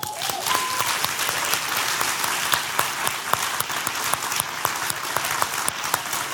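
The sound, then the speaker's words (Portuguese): A crowd applauds steadily, dense overlapping claps filling the whole stretch at an even, fairly loud level without letting up. “E eu quero mais uma vez dar uma salva de palmas para você que tem relacionamentos duradouros.”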